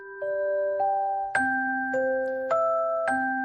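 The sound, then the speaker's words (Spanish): A gentle lullaby melody of sustained, bell-like tones moving slowly from note to note, each new note struck clearly. It plays at a steady, moderate volume with no voices, broadcast on the Cadena COPE radio station. “Cambiamos el ruido de Madrid desde una azotea, desde la azotea de la emisora de la cadena Cope por esta nana que estás escuchando.”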